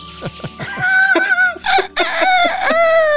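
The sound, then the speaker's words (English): A rooster crows loudly, a long cock-a-doodle-doo after a few short clucking notes, with strained, harmonic calls filling the whole clip. “It always uh-huh. started with the sound of a rooster.”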